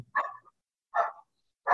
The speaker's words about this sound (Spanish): Entonces, perdón, ya, ya empezaron a ladrar no, están de acuerdo tampoco mis perros